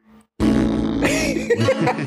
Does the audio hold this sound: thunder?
no